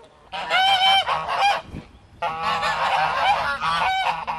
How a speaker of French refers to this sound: On va essayer de voir si quelqu'un est le propriétaire de ces oies et s'il pourrait nous en parler un petit peu, j'adorerais.